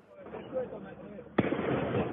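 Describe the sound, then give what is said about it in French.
A single sharp, loud firework mortar bang cracks out partway through, fired by hooded youths at firefighters and police alongside Molotov cocktails, in a neighbourhood of Limoges during the night from Monday to Tuesday, over a steady rumbling background of noise and indistinct voices that continues after the blast. “Sur cette vidéo, on entend les tirs de mortiers d'artifice et les cocktails Molotov tirés par des jeunes cagoulés.”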